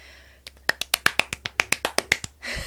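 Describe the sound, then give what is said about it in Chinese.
A quick run of about fifteen sharp, bright hand claps by one person clapping their own hands, in a steady rhythm, moderately loud, with brief breathy noise before and after and no talking over them. “自己拍手”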